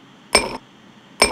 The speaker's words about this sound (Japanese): これあれです氷を入れる瞬間この辺ねあの子供たちの好きなジュースとかをね一緒に買って買いに行って一緒に選んでこの音どうなるかなみたいにやってやったことですねこれ氷です次ちょっと想像してみてくださいあこれ氷が今2個入りましたね かわいいトントンっていうノック音にも聞こえるね